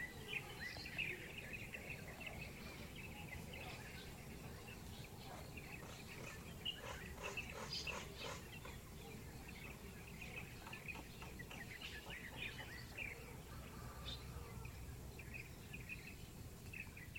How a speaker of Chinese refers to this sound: 哦，光是这些声音，呃，现在这些鸟叫声就充满了想象空间了，对不对？这超有 feel 的吧？这声音来自于花莲的吉安乡，这是我经纪人录给我的，他来炫耀他美好的早晨的。